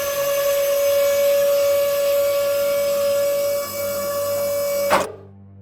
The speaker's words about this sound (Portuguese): Ele apertou o interruptor para a pista B e, por um momento, um ruído metálico alto encheu o parque.